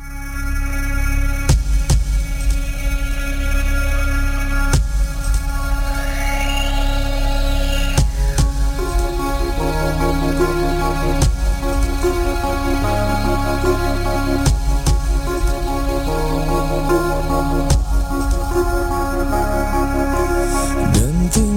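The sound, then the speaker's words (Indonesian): A song's instrumental intro plays steadily and fairly loud on the radio, with sustained layered chords shifting every couple of seconds and no voices over it. “Kita dengarkan lagu berikut.”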